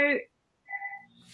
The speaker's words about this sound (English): oh, that's the phone.